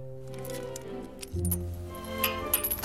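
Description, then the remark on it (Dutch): Small keys jingle and clink lightly as they are taken out of a small envelope, a few short metallic rattles that grow busier toward the end, over a low, steady humming background. “Ik pak de sleuteltjes uit het envelopje.”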